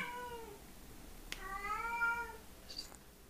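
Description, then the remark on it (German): A pet cat meows twice in succession, the second call longer and drawn out, clear, with a brief click between them and no talking. “Meine Katze hört überhaupt nicht auf zu miauen.”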